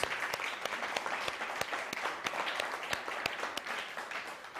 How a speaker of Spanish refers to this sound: Vamos a dar un fuerte aplauso a la cuenta de tres y decimos uno, dos, tres, Shabbat Shalom. Vamos.